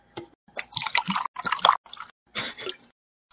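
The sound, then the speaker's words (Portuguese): Wet swallowing and sloshing of liquid, a few gulps in quick bursts with short pauses between them, as a person drinks water. “Tá mijando aí? Não, tô bebendo água.”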